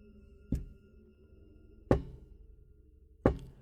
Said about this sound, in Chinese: 与此同时，好像要回应我的话一般，门外传来了低沉的敲打声。